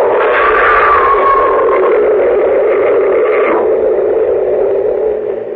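A subway train rushes past in a loud, steady roar, a high squealing tone sliding downward partway through before the rumble eases slightly at the end.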